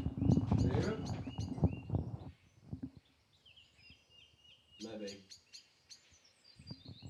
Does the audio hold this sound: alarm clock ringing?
no